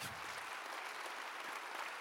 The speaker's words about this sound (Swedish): So clap for your people. Så applådera ert folk.